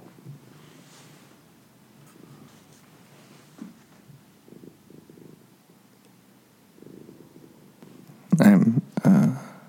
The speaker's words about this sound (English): He looks very cute. He's purring pretty hard. He seems happy.